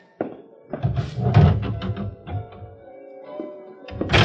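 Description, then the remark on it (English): A door is pulled shut with a series of wooden clunks, rattles and a faint creak, ending in a solid thump. No one speaks. “I'd rather you leave the door open if you will.”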